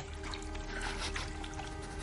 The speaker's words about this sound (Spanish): Ramsey se sienta sobre el borde de la bañera. Moja un trapo enrollado en el agua.